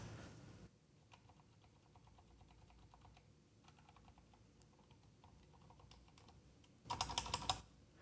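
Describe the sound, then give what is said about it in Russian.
Soft, quiet key presses on a keyboard with very quiet keys tick along in an irregular rhythm, then a short burst of louder, fuller clacks near the end from the space bar being struck. “Вот этот сильный звук, это был пробел. Пробелы традиционно звучат посильнее. Все остальные кнопки тихие.”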